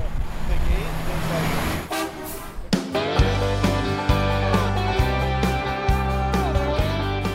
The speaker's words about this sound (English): in a Freightliner Cascadia. That's like the biggest, baddest truck you can buy